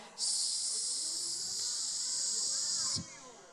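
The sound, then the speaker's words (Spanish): A voice imitates a rattlesnake's rattle with a steady, fairly loud hissing buzz held for about three seconds, then cut off abruptly. “Y yo y pastor una cascabel que hacía”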